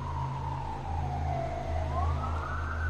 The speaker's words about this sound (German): Er hört das entfernte Heulen von Sirenen und das Stöhnen der Gebäudeinfrastruktur.